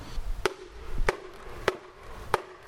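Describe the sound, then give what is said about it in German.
Four sharp wooden knocks ring out at a steady, unhurried pace, a wooden mallet striking a hanging beech or maple board (a Hillebille, the signal board charcoal burners in the Harz used to call each other) with a bright, resonant clack and a short ringing tail, with no voices. “ein Buchen- oder Ahornbrett aufgehängt mit einem Holzschlägel. Und wenn man dagegen schlägt, gerade hier im Harz in Tallagen, dann kann man bei günstigem Wind kann man das äh, Signal dann bis zu sechs Kilometer weit hören.”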